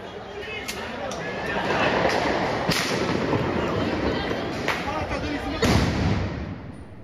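Several sharp bangs from tear gas bombs fired by police go off at irregular intervals over a loud, continuous roar of crowd noise and shouting during a street riot with fighting.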